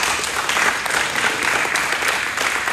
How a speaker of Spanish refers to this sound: Cierto. le das un fuerte aplauso al Señor.